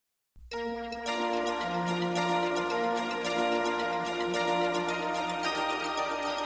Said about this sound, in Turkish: Şimdi... Aa, sosyal medya jingle'ı.